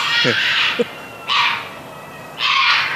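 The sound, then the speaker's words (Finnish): Three harsh, hoarse barks spaced about a second apart, loud, matching a roe deer's barking call, heard in darkness with no fog, with a brief faint vocal murmur near the start. “Kauris vai?”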